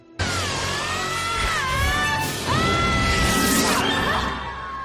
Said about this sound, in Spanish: ¡Qué gritos!